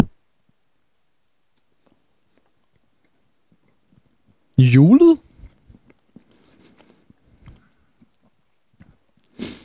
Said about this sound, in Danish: Den dufter meget julet. Ikke godt. Den har en anderledes konsistens. Nå, men øh, den kan du øh, bare sidde og gnave på.